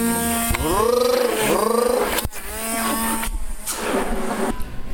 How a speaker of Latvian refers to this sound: Es tagad eh, blenderēju keksiņiem, kas sakās ķirbīti, ķirbīti blenderēju. Jūs varat dzirdēt, kā strādā blenderīts.